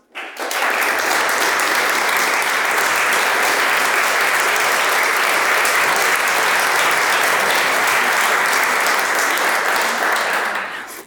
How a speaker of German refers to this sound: Ganz herzlichen Applaus